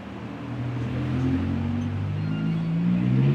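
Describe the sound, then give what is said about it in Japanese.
Steady roar of main-road traffic, with low engine drones rising and shifting as vehicles pass and accelerate, filling the whole stretch at a fairly loud, constant level; no one speaks. “はい、やっぱり大通りの方出ると結構な音がしますね”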